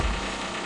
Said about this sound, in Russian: Мы извиняемся за вот этот вот шум в эфире, потому что это от нас не зависит. Здесь в соседних э, помещениях э, работают с отбойным молотком.